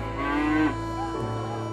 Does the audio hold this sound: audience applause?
no